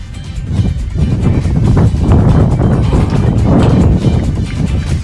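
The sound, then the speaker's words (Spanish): Strong gusting wind in Uruguay, at a football training session, roars and buffets steadily throughout, a loud low rumble that swells and surges in waves with no pauses, and no voices are heard. “está pasando un ventarrón terrible.”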